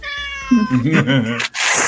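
A thin, high-pitched cat meow, then a lower, wavering drawn-out meow that sounds like a human voice imitating a cat. Both are loud, ending in a short burst of noise.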